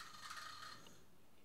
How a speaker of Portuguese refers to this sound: Esse é o som do ioiô.